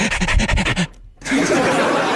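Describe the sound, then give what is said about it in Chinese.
A person imitates a hungry dog panting at the smell of food, as in Pavlov's conditioning experiment: a fast run of breathy, rhythmic huffs for under a second, a short pause, then a longer stretch of harsh, noisy exhaling. “你没养狗的话，你听我这么一学，你也知道了吧？”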